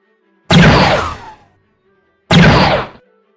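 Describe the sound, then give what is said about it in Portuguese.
Two loud gunshots ring out a couple of seconds apart, each hitting sharply and then fading with a long, ragged tail. No voices, just the two blasts on their own. “Vocês escutam os tiros, né?”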